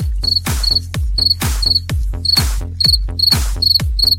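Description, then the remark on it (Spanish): A cricket chirps loudly in quick, high-pitched pulsed bursts, repeating steadily alongside a regular low thumping beat about twice per second; no one speaks. “Ya, callen ese grillo, de veras.”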